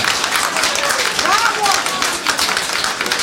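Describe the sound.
An audience applauds steadily, a dense wash of many hands clapping at a constant loudness, with a few faint tonal voice-like sounds rising briefly through the middle.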